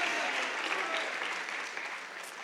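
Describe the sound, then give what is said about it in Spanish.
An audience applauds steadily, a dense wash of many hands clapping at an even level, tapering slightly toward the end with no voices standing out. “Él es fuerte ese aplauso.”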